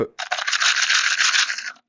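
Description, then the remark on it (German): A small plastic box of Tic Tac mints is shaken hard and fast, giving a loud, dense rattle that runs continuously for about a second and a half, slightly harsh. “Das ist, das ist das Geräusch von Tic-Tacs.”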